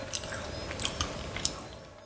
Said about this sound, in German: Und Chips schmecken besser, wenn sie kross klingen.